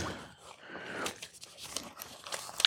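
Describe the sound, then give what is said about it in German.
Crinkly rustling and scraping of paper and cardboard as packing is pulled out of a headphone box, with irregular crackles and a few sharper crunches near the end. “Also die Hörmuscheln sind hier ziemlich gut in Papier und Pappe eingelegt.”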